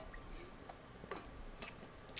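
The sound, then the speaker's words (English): Someone picks up a water bottle and drinks water from it: quiet, soft liquid sounds and a few faint gulps or clicks spaced across a couple of seconds, with no talking. “You watched me pick up my water bottle and take a drink from it, and I, then started to yeah, count.”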